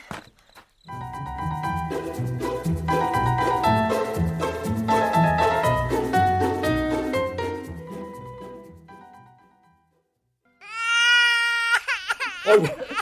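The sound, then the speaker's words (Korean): A baby wails loudly and continuously for several seconds in sustained, strained cries, then falls quiet briefly before another burst of higher, rising cries. “아이고 그거 목청 한번 시원하네.”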